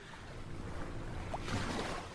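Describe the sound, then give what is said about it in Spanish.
A motorboat engine sound effect drones steadily beneath rushing, splashing water, a constant wash of noise with no voices, swelling slightly toward the end. “¿No puede poner efecto lancha?”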